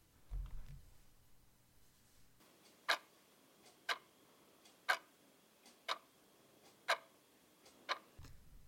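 A clock ticks steadily, about one sharp tick per second, six clear beats after a low rumble at the start and before another at the end.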